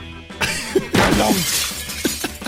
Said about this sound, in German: Das Fenster fällt samt dem Rahmen ins Gebäude rein und macht riesengroßen Lärm.